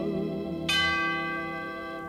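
Carillon bells ring with layered, sustained metallic tones; a bright new bell strike lands partway through and then hums and fades slowly. No one speaks.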